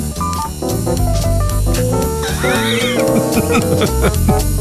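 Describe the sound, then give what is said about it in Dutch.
A rhythmic instrumental news-style music bed plays at full level, with a steady pulsing beat, bright melodic notes and a few rising synth sweeps, and no voices over it. “Ja is een ritmisch bedje.”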